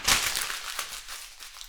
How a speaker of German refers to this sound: In diesem Sinne werde ich mein Skript jetzt live vor Mikrofon zerknittern